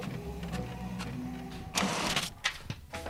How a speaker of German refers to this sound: Vielleicht mache ich das Bild so, den Screenshot, dass man es mehr noch sieht. Genau. Okay, dann drücke ich mal auf Drucken.